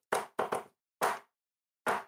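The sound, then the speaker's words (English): Knocking on a wall: five solid knocks in an uneven pattern, a quick cluster of three, then two more spaced out, with silence between and no voices. “Yeah, I would say um, we all just take time to relax and wait until we hear a knock on the wall that we come up with.”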